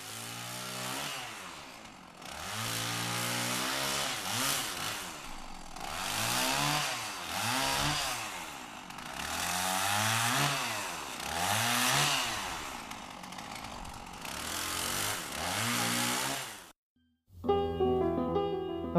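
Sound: chainsaw running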